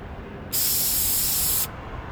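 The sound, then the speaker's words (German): A single steady burst of spray paint from an aerosol can sprayed through a stencil, a bright, even hiss lasting just over a second that starts and stops abruptly, with no talking. “Und das willst du jetzt in ganz Zürich auf den Boden sprayen nicht in ganz Zürich, an strategisch wichtigen Punkten.”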